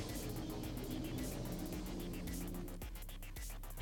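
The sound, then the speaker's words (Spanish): Steady, loud rumble of car engines and traffic outside, droning continuously with a broad noisy hiss before shifting slightly near the end; no talking. “Ya empezaron los cacos con los carros.”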